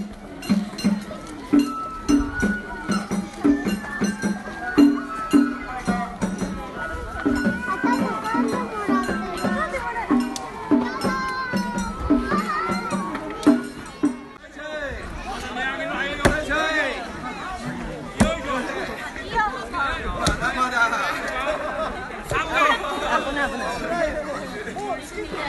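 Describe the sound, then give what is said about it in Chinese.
A crowd pounds mochi at a small local shrine in Japan on a cold winter day, gathered around a fire: a steady series of heavy mallet thuds under chattering voices. Partway through, the regular pounding loosens and lively voices rise, with occasional thumps continuing. “哇，我想透过声音，你就能够感受到当时这样一个在我们当地小小的神社里聚集的这么多的人，在冷冷的冬天里一起围着火，一起倒马吉，一起感受温暖。”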